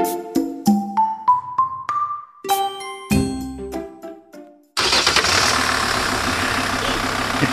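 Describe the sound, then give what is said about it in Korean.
A series of bright chiming tones plays, then the engine of a truck belonging to an uncle abruptly roars to life and settles into a loud, steady rumble. No one speaks. “우와, 이 트럭이 진짜 삼촌 차야?”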